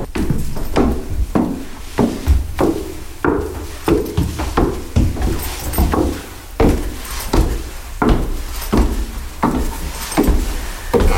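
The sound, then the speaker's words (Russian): Steady footsteps climb wooden stairs up to an artist's workshop in an apartment, a long run of hollow thuds at an even walking pace with no talking, each step a sharp knock with a faint creak. “Мы поднимаемся наверх.”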